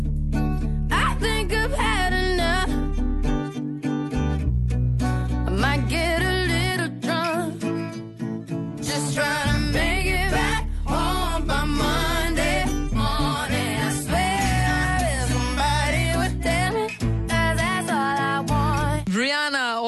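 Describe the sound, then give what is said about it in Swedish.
A pop song plays on the Mix Megapol radio morning show at steady, full volume for the whole stretch, with a sung melody over strong bass and layered instrumentation, and the tune rises and falls through sustained vocal lines. “Ja, och den låten låter så här.”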